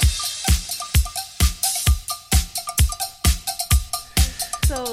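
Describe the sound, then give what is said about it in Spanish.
Upbeat, lively music with a steady, punchy beat and bright bell-like percussion clanking along, a festive party feel, played loud with no voices. “Y esta música suena así, a fiesta, porque estos tipos, la verdad, viven de fiesta mientras nosotros tenemos que cobrar el sueldo.”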